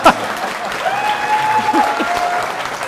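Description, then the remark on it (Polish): A crowd applauds steadily for a few seconds, a dense wash of clapping with some scattered voices and a faint whistle or cheer riding over it. “I słuchajcie, jeszcze raz proszę, proszę o brawa.”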